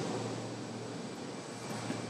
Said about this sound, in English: Oh, those helicopters are loud.